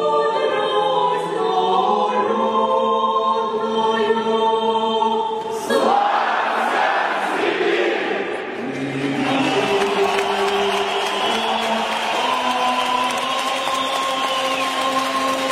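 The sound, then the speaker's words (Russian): A big hockey arena crowd in Novosibirsk, Russia, sings the national anthem before a Kontinental Hockey League game of the local team Sibir, loudly shouting "Glory, Siberia" instead of "Glory, Russia" over sustained music, the voices swelling louder and rougher partway through, with a reverberant, roaring wash beneath. “Потому что жители Новосибирска кричат не «Славься, Россия», а «Славься, Сибирь» громко.”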